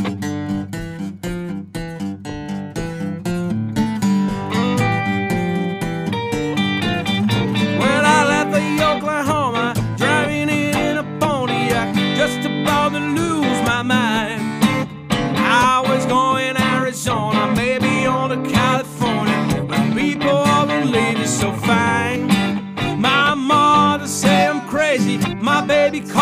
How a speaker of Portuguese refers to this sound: Ó, oh, essa música aqui é muito massa. Teve um, um, um, casal que pediu esse som no casamento deles.